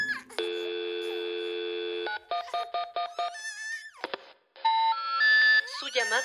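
telephone keypad dialing tones

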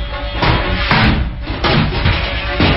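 door being shut

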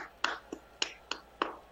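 one person clapping hands

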